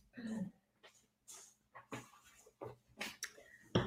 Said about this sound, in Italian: questo è Oliver eh, che sentite. A chi Oliver? Sono qui con due cani. Eh, ecco, sì. Stai zitto perché... è mattina presto, questi abbaiano.